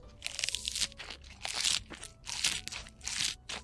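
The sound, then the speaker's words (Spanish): Wet chewing of a squash-flower quesadilla, with repeated crunchy bites in a steady rhythm, about four loud bursts of crunching separated by brief pauses, with no talking. “A ver, trágate una de estas para que veas.”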